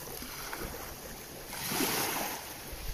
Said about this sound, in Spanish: Siente el sonido del mar y relájate.